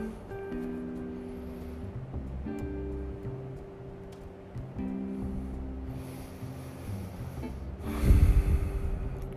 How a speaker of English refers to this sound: just take your time, breathe it all in, enjoy it. Do you feel it? It's amazing, isn't it?